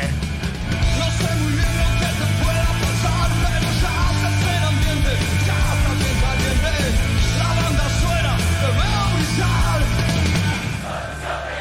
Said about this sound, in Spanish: Ahí lo canta la gente, dice, no soy tu solución, pero sí un mejor disfraz.